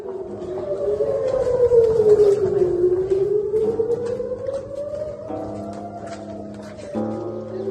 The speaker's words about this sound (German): So, jetzt sind hier gerade die Sirenen losgegangen. Wir gehen jetzt in unseren Safe Room.